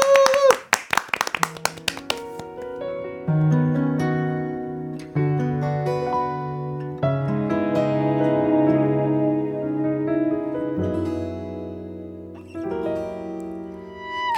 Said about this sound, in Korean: 네, 박수로 청해 드리겠습니다.